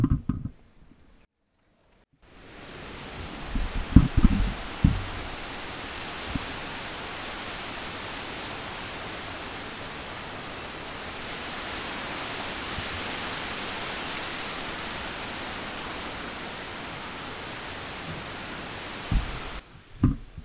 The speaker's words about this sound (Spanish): A ver si pueden escuchar esto. Hermosa lluvia, Domingo a la tarde. Escuchen, a ver.